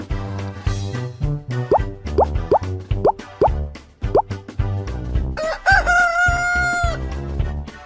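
A rooster crows loudly over a bouncy musical backing, with a string of short rising calls followed by one long, drawn-out crow near the end.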